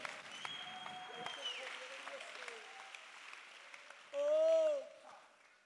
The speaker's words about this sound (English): Does anybody believe what I'm preaching right now? You got to clap your hands right now. You got to give God a shout of praise.